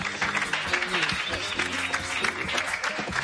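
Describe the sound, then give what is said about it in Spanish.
A group of office workers applauding as a pair of colleagues leave the office, steady dense clapping that keeps an even level throughout, with some voices murmuring underneath. “El resto de trabajadores les aplauden mientras abandonan la oficina.”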